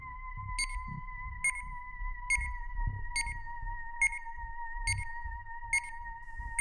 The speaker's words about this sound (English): A continuous, frantic series of beeps came from the watch